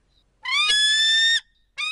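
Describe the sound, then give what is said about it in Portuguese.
A bald eagle, the bird symbol of the United States, gives a high, thin, piercing cry, one long sustained note lasting about a second, then a second call beginning right after. It is loud, with no talking. “E que a ave símbolo dos Estados Unidos é a águia careca?”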